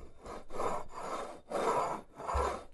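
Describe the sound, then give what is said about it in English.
A mug is rubbed back and forth across a desk, making about five steady scraping strokes in a quick rhythm with brief pauses between them. No one speaks. “let me just give you the simulation. Here's the mug on my desk.”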